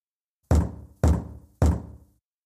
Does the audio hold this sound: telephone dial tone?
no